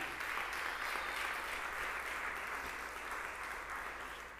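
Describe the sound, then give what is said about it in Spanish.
An audience applauds, the applause also meant for viewers watching on digital platforms, in a steady, dense wash of clapping that holds at an even loudness for several seconds, with a faint low hum underneath. “Si estás viendo esto a través de las plataformas digitales, quiero dejarte saber que no tienes que creer para pertenecer y que este aquí hay un lugar para ti y allí donde tú estás en tu casa también te amamos y este aplauso también es para ti.”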